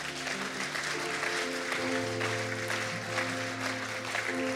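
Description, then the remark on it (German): An audience at a church service applauds steadily for several seconds after a prayer, a dense wash of clapping over lingering sustained organ or keyboard tones, with no voices rising above it. “Lass uns hier mal einen riesigen Applaus geben.”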